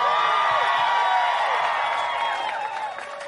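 A crowd claps and cheers loudly for a music act at an Eric in the Morning radio show event, with high whoops and whistles rising over a dense wash of applause that holds steady for about three seconds before easing slightly.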